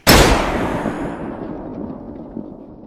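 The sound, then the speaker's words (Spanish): A single loud gunshot cracks out sharply in a study, then a long booming reverberation slowly fades away. No voices are heard. “Fue un disparo.”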